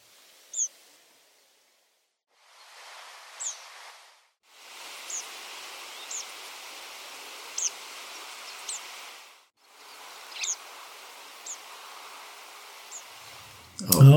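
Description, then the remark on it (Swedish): Siberian pipit calls: a series of short, thin, high-pitched notes at irregular intervals over a steady hiss of background noise, with a brief gap of near-silence between passages. “så, är det här goda och säkra sibiriska piplärkor.”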